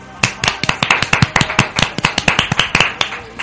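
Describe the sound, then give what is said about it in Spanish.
Brisk, steady applause of crisp hand claps, roughly five or six per second, keeping an even rhythm for a few seconds with no talking; the program's first applause, given to Chivas coach Matías Almeida. “con esto quiero dar el primer aplauso del programa.”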